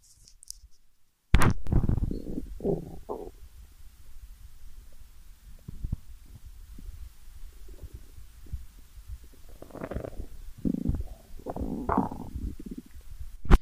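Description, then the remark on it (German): Muffled stomach gurgling from a person's upper abdomen, recorded with a microphone held against the belly: irregular low rumbles and bubbly squelches rising and fading over several seconds, with a soft thump at the start and no talking. “Mikrofon gehen wir jetzt mal in deinen Bauch.”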